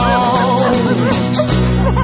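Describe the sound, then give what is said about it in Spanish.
A dog gives several short, high yips and barks at a steady pace, clear, layered over a continuous musical backing. “Volveremos a mapear, mover la cola y ladrar.”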